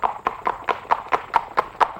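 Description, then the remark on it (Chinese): A horse's hooves clatter in a quick, steady clip-clop as a hunter rides away chasing a fox, about ten sharp hoofbeats evenly spaced over two seconds, with no voices. “继续骑着马去追狐狸了。”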